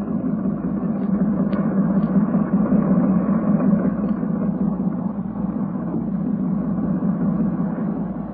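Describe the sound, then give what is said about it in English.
A boat engine runs roughly, droning steadily in a dense low rumble that holds without pause, with a few faint knocks and rattles riding on top. No one speaks. “Under the sound of it, that engine needs attention.”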